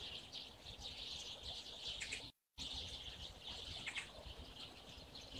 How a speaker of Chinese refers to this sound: 能听见它们的叫声吗？所以我经常说，每个冬天麻雀都在开会，你们听。